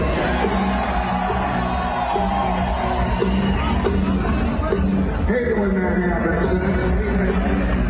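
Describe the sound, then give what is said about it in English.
A large crowd cheers and whoops in a steady, dense roar that holds for several seconds, with scattered shouts and a hubbub of voices rising through it. “So, you know, uh, it, it's, it's incredibly easy to get a pop from a crowd.”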